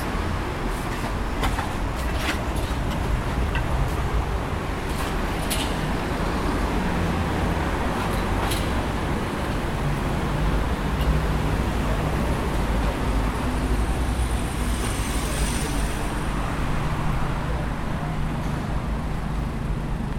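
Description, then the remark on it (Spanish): Steady, dense traffic on Avenida Corrientes rumbles continuously beside the sidewalk, a broad roar of engines and tires with occasional brief clicks and a faint high hiss of passing vehicles, measured at about 73 to 75 decibels. No speech. “caminando por la avenida Corrientes, al costado del tránsito.”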